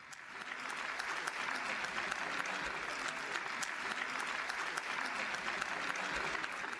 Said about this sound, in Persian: پس حالا دوباره به همان صدای تشویق برمیگردیم